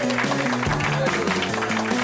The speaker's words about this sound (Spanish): Para todos nosotros. Un aplauso. Un aplauso.